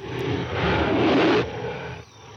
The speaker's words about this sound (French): C'est souvent des sons ralentis, de fauves